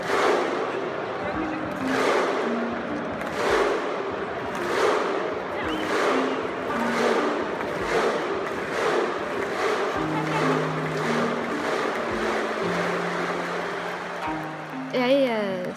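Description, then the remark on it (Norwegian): A large crowd of Icelandic football supporters chants in unison with loud, evenly spaced booming claps, each followed by a deep collective shout, repeating steadily like a rhythmic war cry; the supporters' 'volcano roar', first done at the European Championship. “de islandske supporterne som lagde denne vulkanbrøl eller hva man kalte det”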